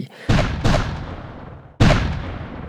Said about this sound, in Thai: พอเห็นท่าทางดูเหมือนกับมีความความขัดแย้งเกิดขึ้น ก็ตะโกนสั่งให้ระดมยิงปืนใหญ่เข้าใส่ทหารของทางอินคาเนี่ยทันที